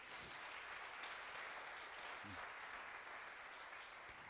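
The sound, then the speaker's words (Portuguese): An audience bursts into steady, dense applause for God at a preacher's call, a continuous wash of many hands clapping at even loudness for several seconds, with a faint voice or two briefly audible underneath. “Dá uma salva de palmas a Ele então.”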